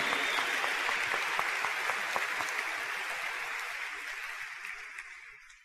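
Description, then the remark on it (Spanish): A crowd at a business event claps for the Esmeralda and Diamantes teams and their leaders, a dense wash of overlapping hand claps, loud at first and gradually thinning and fading toward the end, with no voices standing out. “Así que yo quiero que le demos un fuerte aplauso a todos los equipos de Esmeralda, Diamantes, a todos sus líderes que han hecho que este evento sea posible.”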